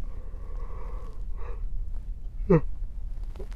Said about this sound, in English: Sorry about the yawn. It's been a long day